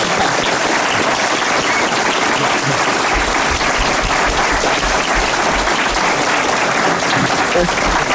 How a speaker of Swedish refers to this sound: En, en stor, en riktig, riktig applåd! applåd.